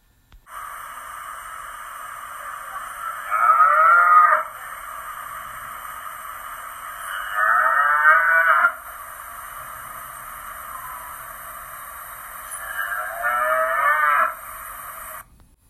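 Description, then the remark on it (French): Three drawn-out cow moos, spaced several seconds apart, rise over a constant mechanical hum. No one speaks. “Pense aux vaches qui regardent le train passer”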